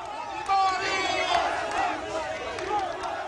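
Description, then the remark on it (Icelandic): A large crowd of supporters cheers and shouts in the streets of Lima, Peru, greeting the country's president, a dense roar of many voices with rising whoops and calls, sustained and fairly loud throughout. “Þegar fórsetin fór út á götur líma nokkrum dögum síðar var honum fagnað af stunningsmönnum sínum.”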